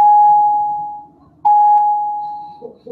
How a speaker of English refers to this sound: We are in school. If you can hear the bell. Um, it's totally fine. Don't don't don't worry about the bell. It's fine.